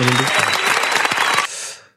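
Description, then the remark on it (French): A short burst of hand clapping as applause for the Aurora, quick and dense, lasting just over a second after a brief voiced sound at the start, then cutting off into a fading tail. “J'applaudis quand même pour le Aurora”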